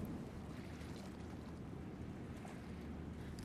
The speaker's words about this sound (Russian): Иногда хочется послушать природу, поэтому ты выключаешь наушники – и замечаешь журчание воды. Это течет ручей. Интересно, он начинается вот в тех горах, а в какой момент он станет огромной рекой.